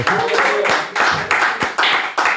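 Loud applause from a group, close by, with hands clapping in a fairly steady rhythm of bursts and a faint voice mixed in near the start.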